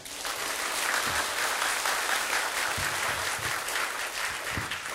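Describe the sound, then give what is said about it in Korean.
Steady applause from an audience fills the whole stretch, a dense wash of many hands clapping at an even, sustained level with no one speaking over it. “어, 제가 그렇게 사연 끝에 어, 박수를 치지 않으셔도 된다고 했음에도 불구하고 치신 이유는 어, 아시고 계시다는 거죠.”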